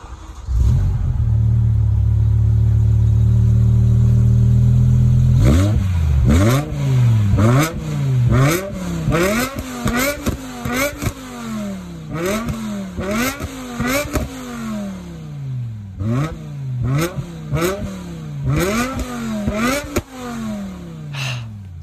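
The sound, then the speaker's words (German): A BMW M5 E60 sports sedan engine rumbles steadily at first, then is revved hard again and again in quick, rising bursts that snap back down, loud, with no voices. “Heute kümmern wir uns um den BMW M5 E60, ja.”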